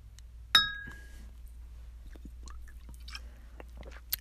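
Beer glasses clink once in a toast, a sharp chime that rings for a moment before fading, followed by faint small sips and shuffles over a low steady hum.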